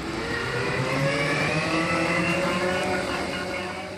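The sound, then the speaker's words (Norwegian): An electric self-balancing Segway, ridden standing and steered by leaning the body forward or sideways, drives along with a steady, buzzing motor whine over a rolling hum. It holds an even loudness for the full four seconds with no talking. “Det du hører her er en ståhjuling, et sjølbalanserende kjøretøy som snart blir lov å bruke i Norge.”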